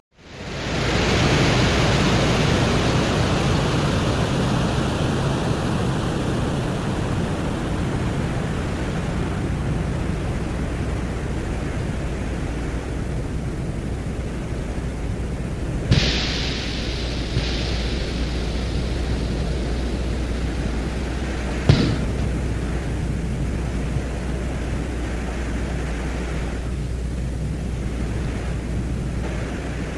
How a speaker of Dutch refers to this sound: Dan hoor je boren op de venusgrond.